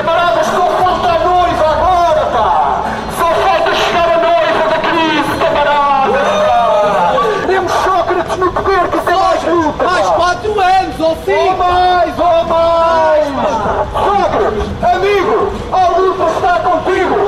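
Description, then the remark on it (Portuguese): Outside, a crowd shouts cheers for Sócrates, many raised voices overlapping in a loud, continuous din that rises and falls in bursts without a pause for the whole stretch. “E cá fora, gritando os estranhos vivas a Sócrates, estavam os homens da luta.”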